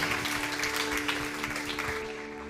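An audience at a church celebration applauds Jesus together, a dense, steady wash of many hands clapping that holds at an even level, with a faint sustained tone humming underneath.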